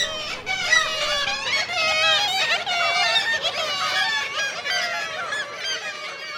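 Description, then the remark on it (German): Black-legged kittiwakes calling at a breeding colony, a dense, continuous chorus of loud, nasal, overlapping cries from many birds at once. “Das ist ihr Ruf, den man allerdings nur in den Brutkolonien hören kann.”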